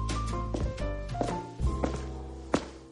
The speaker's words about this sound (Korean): 복도에 올리는 그 발자국 소리. 아, 우리 스탭들이 이제 효과음까지 넣기 시작했습니다.